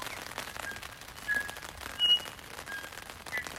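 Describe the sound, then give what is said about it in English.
A tui in the Puketi forest, heard in the morning, gives a string of odd calls mimicking something annoying: sharp, high whistled notes and a rapid clicking rattle, fairly quiet over a steady background hiss with no talking. “It's gotta be a tui, mimicking something extremely annoying.”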